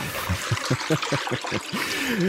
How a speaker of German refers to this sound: Tatsächlich werden gerade, ihr habt es gerade gehört, ihr wart live dabei, über seinen Klospülkasten Senf Keimsprossen gewässert